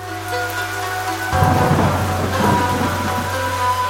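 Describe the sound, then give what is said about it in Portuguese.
Heavy monsoon rain of the rainy season in India pours steadily and loudly, with a deep rumble of thunder rolling in after the first second and lingering beneath the downpour. No voices are heard. “que chegaram à Índia no período das monções, a estação das chuvas, obrigando os refugiados a viverem em meio às chuvas daquela estação.”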